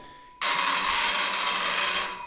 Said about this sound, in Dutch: bel gaat.